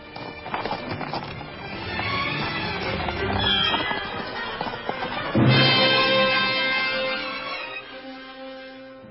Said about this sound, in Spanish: Apure esos caballos, cochero, por favor. De otro modo nos dejará el tren.